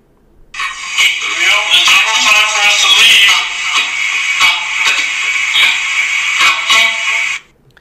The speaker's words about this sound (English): So he's saying we're about to leave, and then you hear an EVP come through through the echo box. So I'll, I'll play it again.